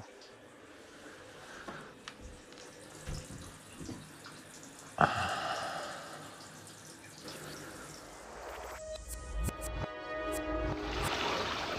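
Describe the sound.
Shower water runs steadily with a hissing spray, recorded directly under the shower, that grows fuller and louder partway through, with a few knocks and splashes, and a voice briefly speaks over it.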